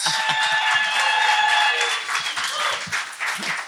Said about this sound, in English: It's great entrance that's applause. a nice way to start.